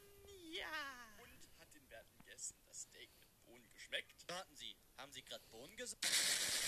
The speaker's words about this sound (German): und es explodiert wieder alles.